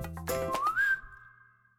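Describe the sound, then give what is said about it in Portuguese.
A clear whistle slides upward and holds a steady note before fading, like the start of a whistled song, with no voices. “Ouve-se o assobiar de cantigas, gargalhadas altas e fofocas.”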